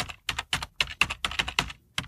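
Rapid typing on a computer keyboard while searching Google for a Hasbro toy set, a steady run of crisp clicks and clacks about four or five per second, with no one speaking.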